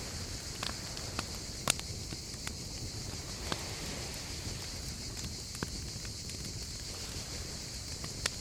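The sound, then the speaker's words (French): A campfire on a beach crackles quietly, with sparse sharp pops and snaps scattered irregularly over a soft, steady hiss, subdued and slightly distant, with no voices. “Peut-être entendez-vous leur crépitement feutré.”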